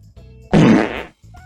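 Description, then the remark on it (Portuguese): A loud, explosive fart bursts out for about half a second, broad and sputtering, rising sharply and trailing off, with quieter low rumbling tones before and after. “Peido explosivo.”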